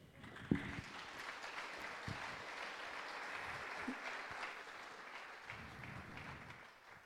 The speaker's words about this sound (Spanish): La recibimos con un fuerte aplauso.